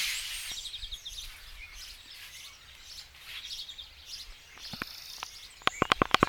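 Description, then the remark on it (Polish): Several birds chirp and trill steadily outdoors on a terrace in a village, a soft continuous chorus, with a few sharp clicks and knocks near the end. “No i ptaszki śpiewają, wszystko fajnie”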